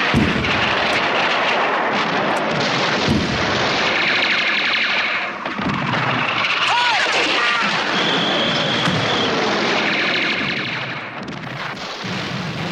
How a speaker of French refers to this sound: car à ce moment-là, la fusillade et la canonnade faisaient rage de tous côtés. Nous avons été favorisés. En face de nous, tout a été calme, sauf ce matin qu'ils nous ont envoyé des obus qui ont éclaté près de nous sans nous faire mal.